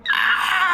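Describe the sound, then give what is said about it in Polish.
A voice imitates a short, quiet, muffled cry of pain, as if from behind a main screen, a single sustained wail lasting under a second, held at a steady level with no other sounds around it. “krzyk bólu, tylko takie cichutkie i stłumione, tak jak byłyby za tym ekranem głównym.”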